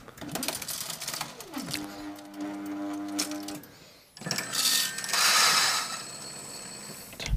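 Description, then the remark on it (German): An espresso machine's vibratory pump hums with a steady, low mechanical buzz for several seconds while coffee shots run through, briefly drops off, then gives way to a louder, rushing hiss that continues to the end. “Also Pumpe gefällt weil die hat den wirklich den gleichen Druckverlauf äh, wie der große Bruder.”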